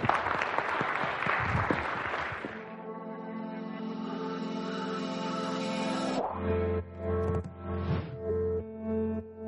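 An audience claps in a dense burst of applause for a couple of seconds, then it cuts off as steady, sustained electronic music with a tonal hum takes over.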